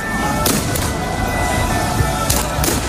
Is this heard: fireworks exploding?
yes